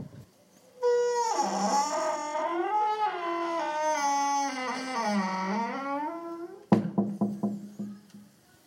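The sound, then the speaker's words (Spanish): A heavy castle door, pushed hard, groans open in a long, wavering creak lasting several seconds. It then lands with a loud thud, followed by a few quick rattling knocks as it settles. “Así que entras, digo, llegas y te encuentras la puerta cerrada y la tienes que empujar fuerte.”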